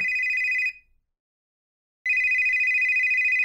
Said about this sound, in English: Oh, I'm sorry. I thought I muted this. Wait a minute. I know this ringtone. There's only one person who gets this ringtone.